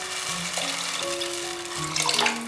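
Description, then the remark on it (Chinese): Water pours steadily into a cooking pot of stir-fried tomato, carrot and black fungus to make soup, a continuous splashing rush with faint rising tones as the pot fills, lasting the whole moment without any voices. “稍微拌炒一下，把水加进来。”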